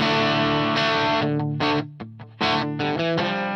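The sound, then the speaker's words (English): Crunchy overdriven electric guitar played through a pedal on channel one, on the normal rather than the boost setting, loud, with a few chopped chords and short gaps between strums, no voices. “quite crunchy. It's very crunchy.”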